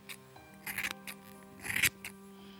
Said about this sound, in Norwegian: det lange, vakre kastanjebrune håret faller nedover skuldrene. Jeg tar fram saksa og klipper det kort.